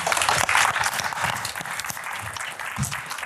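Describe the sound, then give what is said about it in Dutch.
An audience applauds warmly to welcome a speaker before a lecture, a dense, steady wash of many hands clapping that holds for a few seconds, with no talking over it. “Mag ik een warm applaus voor”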